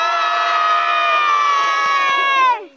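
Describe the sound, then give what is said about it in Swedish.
A big group of Finland-Swedish children in Borgå, Finland, yells a long, drawn-out "hej" greeting together, loudly, holding it for over two seconds before it breaks off, with a few faint claps or knocks near the end. “Ska vi försöka att, att det hörs ända till månen när vi ropar hej?”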